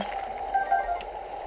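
A video game shrine sensor beeps, signalling that a shrine is nearby: a few short, high electronic pips in quick succession, fairly faint over a steady hissing game background, with no one talking.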